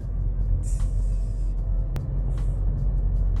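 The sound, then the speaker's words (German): A car drives along with a steady, loud low rumble of engine and road noise, broken by two brief hissing bursts and a sharp click partway through. No one speaks. “Ich hoffe, diese Carpool-Session gefällt euch, wenn ich einfach nur so laber”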